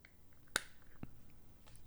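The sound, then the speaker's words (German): A Canon EOS 50 analog film camera's shutter fires with a crisp, sharp click, followed about half a second later by a softer, duller mechanical clack, with quiet surroundings. “Das war eine Canon EOS 50.”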